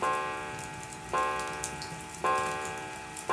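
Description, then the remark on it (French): A pendulum clock ticks steadily during the evening meal in a dining room, about once a second, four evenly spaced ticks, each with a bright metallic ring that lingers until the next. It is moderately loud, with no voices. “seul le tic-tac de la pendule rythme le repas du soir.”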